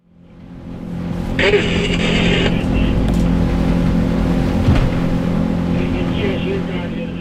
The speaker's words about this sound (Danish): Den lille jolle med den hissige 300 hestes motor bagpå pløjer gennem Semmelikfjordens kolde vande.